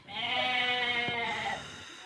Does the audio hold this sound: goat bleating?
yes